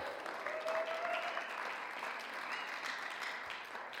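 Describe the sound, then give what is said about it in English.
An audience applauds, a dense, steady patter of many hands clapping that holds at an even level for about four seconds with no voices over it. “you should be clapping for her.”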